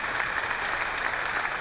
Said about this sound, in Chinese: 我们再给爱多美一个热烈掌声鼓励一下。